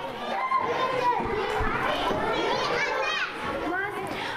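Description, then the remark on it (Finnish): Schoolchildren at a school in Jerusalem rush back to lessons as the bells ring, many high-pitched voices overlapping in a continuous, busy din with occasional louder calls rising above the chatter. “Lapset kirmaavat takaisin tunneille kellojen soidessa.”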